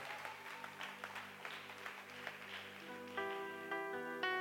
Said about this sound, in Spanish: Da un fuerte aplauso a Dios por eso.